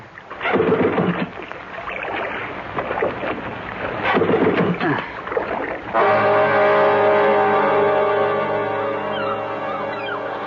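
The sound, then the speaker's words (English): The small outboard motor of a drifting boat, which has died, is cranked with a couple of rough, sputtering pulls, then catches and settles into a steady, loud droning hum that runs to the end. No one speaks. “The motor's died, and the boat's drifting. You stay right there, Rob, while I get it started.”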